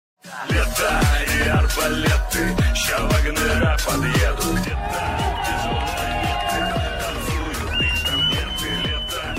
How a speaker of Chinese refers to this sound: 在瓦格纳战歌和群众的欢呼声中，俄罗斯叛军领袖普里戈任和他的部队星期六晚上浩浩荡荡的撤离他们所占领的俄罗斯南部罗斯托夫市的军事总部，为一场震惊天下的兵变画上句点。